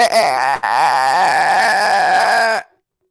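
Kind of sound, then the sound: vocal imitation, voice imitating chirping crickets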